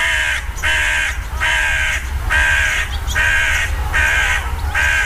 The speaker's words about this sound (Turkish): Sesine gelirsek de en standart bildiğimiz bet, gak, gak karga sesi leş kargasının gerçek sesidir.